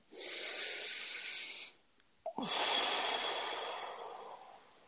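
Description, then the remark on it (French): A slow, deep breath drawn in with a broad airy hiss, a short pause and small catch, then a long, steady exhale that gradually fades. No one speaks. “Alors, dites avec moi une respiration.”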